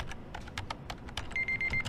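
Rapid, uneven typing on a computer keyboard with a braille display, with a steady high electronic tone sounding near the end over a low background hum.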